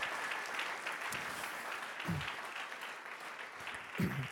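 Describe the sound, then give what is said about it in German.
Sustained applause from an audience for the people of Erlangen, a dense crackle of many hands clapping at steady loudness with a few brief whoops or shouts rising out of it. “Komm, lass uns nochmal den Erlanger einen riesen Applaus geben für das, was sie tun.”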